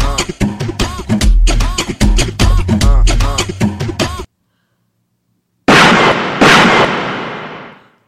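A few seconds of music with singing stop abruptly. After a short silence comes a loud gunshot blast, followed by a long echoing rumble that slowly fades away.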